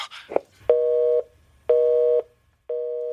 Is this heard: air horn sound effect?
no